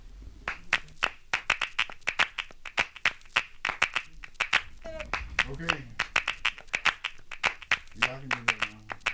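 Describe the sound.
Sharp, steady handclaps repeat in a quick rhythmic pattern, loud and close, with brief voices or sung tones rising between the claps partway through.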